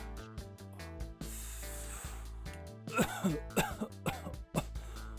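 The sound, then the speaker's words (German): Someone lights incense sticks with a sustained breathy hiss, then breaks into several harsh, raspy coughs and throat clearing over a steady low background hum. “Oh, Moment mal, ich, ich muss hier erstmal was, ich muss hier erstmal was anzünden.”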